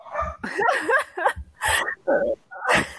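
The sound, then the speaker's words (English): A dog barks and yelps in the background of a recording made at home, a quick, irregular string of about six bursts, some with rising, whiny pitch, moderately loud with brief gaps between them and no one talking. “So uh, you'll hear dogs barking in the background.”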